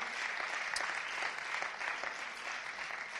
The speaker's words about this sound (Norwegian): Ja, en skikkelig applaus.